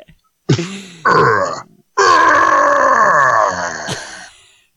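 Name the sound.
imitated straining grunts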